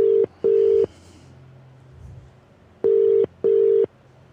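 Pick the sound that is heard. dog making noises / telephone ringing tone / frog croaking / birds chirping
telephone ringing tone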